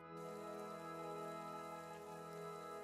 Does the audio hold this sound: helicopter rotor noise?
no